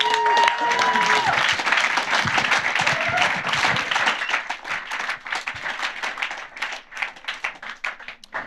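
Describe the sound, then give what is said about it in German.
Audience applause for the ICF Kids leader and his wife, dense and steady at first, then thinning into scattered individual claps toward the end. A few faint whistles or voices rise briefly near the start. “Gerne wir euch einen fetten Applaus.”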